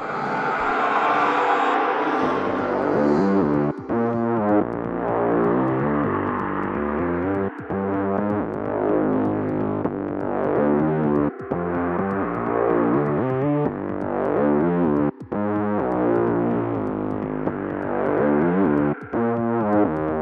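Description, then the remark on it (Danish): A driving instrumental track from the original Destiny 1 video game soundtrack plays continuously, dense with distorted, buzzing synth or guitar tones and a steady rhythmic pulse, with brief sharp cuts every few seconds. No one speaks. “Selvom I ikke har spillet Destiny 1, så har I i hvert fald hørt det her nummer før. Og jeg synes lige, vi skal høre en lille bid af det.”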